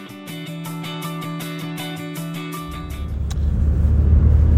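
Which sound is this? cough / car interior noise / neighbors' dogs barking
car interior noise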